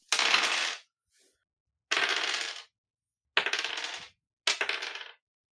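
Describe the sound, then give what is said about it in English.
Dice clatter across a hard tabletop in four separate rolls as two players roll toughness, each a short burst of rattling that stops abruptly, with silence between and no voices. “I want you to both roll toughness. Come on, guys. Hot dice here.”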